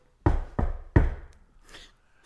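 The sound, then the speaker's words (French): Three firm, evenly spaced knocks on wood, loud, imitating someone knocking at a door, each ringing out briefly, followed by a faint rustle. “Et donc, tu le vois juste donc euh, en, non, tu le vois toquer à la porte en plan suggestif.”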